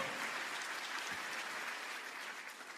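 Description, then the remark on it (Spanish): A crowd applauds steadily after a speaker asks how many say amen and applaud, a dense wash of many hands clapping at once that holds at an even level throughout without any voices. “¿Cuántos dicen amén y aplauden por eso?”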